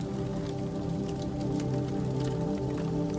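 A steady crackling fire with a low rumbling bed of sound and scattered sharp pops and snaps, continuous throughout with no voices.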